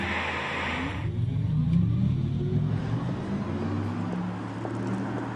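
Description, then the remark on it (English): An Audi R8 e-tron electric sports car drives past on the road with a continuous low synthetic hum and rising tonal whine, strong low rumble, and a brief hiss of tire noise at the start, no voices. “This is what the Audi R8 e-tron sounds like on the road.”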